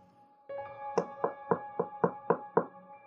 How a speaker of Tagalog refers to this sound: Nagising ako dahil sa malakas na katok sa aking pintuan.